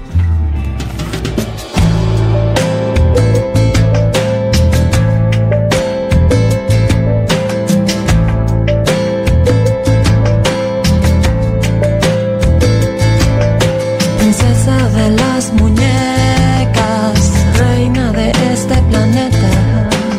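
A song plays loudly and steadily after a brief quieter opening, with sustained melodic instruments over a regular percussive beat and a full, warm low end.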